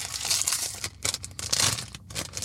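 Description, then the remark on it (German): Crinkly plastic packaging is crumpled and torn open in loud irregular bursts of rustling and crackling with brief pauses between them, and no one talking. “Ich habe die Vermutung, dass ich die Scheiße hier gar nicht aufbekomme ohne eine Schere.”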